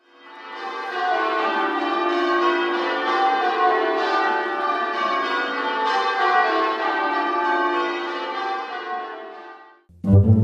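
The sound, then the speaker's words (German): A church bell rings continuously for about ten seconds, its rich overlapping tones sustained and fairly loud, then the ringing cuts off abruptly before a brief low thump at the end. “Beim nächsten Glockenschlag kannst du dich an diesen Werdegang der Glocke erinnern.”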